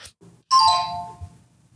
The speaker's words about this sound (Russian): Извиняюсь. тут позвонил телефон. Да, это причем позвонили на компе, а не на ноуте. Потому что я рестартил комп, он просто стартанул телеграм